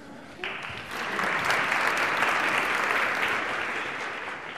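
An audience breaks into applause, a dense wash of clapping that swells quickly after a brief pause and holds steady and loud for several seconds.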